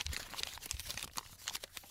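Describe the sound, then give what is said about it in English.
Crumpled paper notes rustling and crinkling steadily, a dense run of small crackles and crunches as crumpled-up balls of paper notes are shuffled and sifted through, moderately quiet, with no voices. “his filing system also is is piles of crumpled up balls of paper.”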